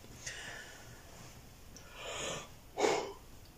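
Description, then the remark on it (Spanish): A breathy yawn: a long airy inhale swells into a short voiced sigh near the end, preceded by softer breaths, with no talking. “Ay, marica, vamos a empezar ya con los bostezos tan rápido.”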